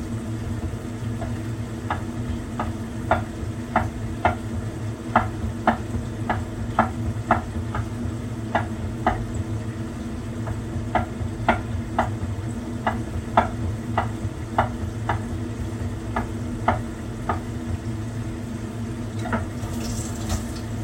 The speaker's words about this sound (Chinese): 那你有空的话，就可以开始再切一下葱绿的部分。